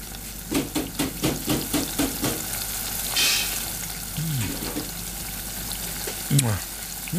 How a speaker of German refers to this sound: Die Fritteuse brutzelt und der Bierkühlschrank surrt.